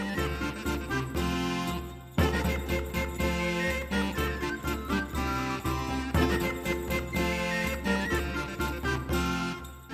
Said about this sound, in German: Genau dieser schwirrende Klang der Krummhörner ist es,